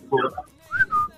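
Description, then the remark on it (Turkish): A person whistles a short bird-like call: two clear, sliding notes, moderately loud, just after a brief burst of voice. “Bundan sonra kuş dili konuşuyoruz herhalde.”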